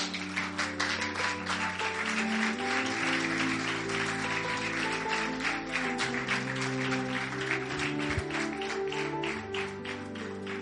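A church audience claps steadily for about ten seconds, an applause for the Lord during a Spanish-language sermon, a dense, continuous ovation with sustained organ or keyboard chords playing underneath.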